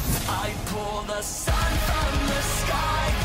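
A loud metal song plays with dense, distorted guitars and sustained melodic tones, then heavy pounding drums kick in about halfway through. No one speaks over it.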